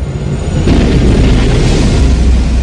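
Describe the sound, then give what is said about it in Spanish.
A loud thunderclap bursts in partway through a violent storm, then a heavy, deep rumble rolls on to the end over a steady roar of storm noise and heavy rain. No voices. “Estallan truenos y relámpagos.”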